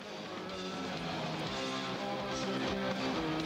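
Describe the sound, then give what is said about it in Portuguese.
Loud, dense live rock music from a a band's concert in Cascais, Portugal, 30 years ago, plays continuously, with distorted guitars and sustained chords filling the sound, captured with a raw, crowded concert feel. “E estamos a ouvir um som, registro desse concerto, podemos ouvir mais um pouco.”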